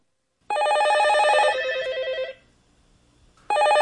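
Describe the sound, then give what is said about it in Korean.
A telephone bell rings in an office of a merchant banking firm in Seoul after 11 p.m., in a loud, trilling burst of about two seconds, falls silent for a moment, then starts ringing again. No one speaks. “아니, 전화를 받아야 할 거 아니야!”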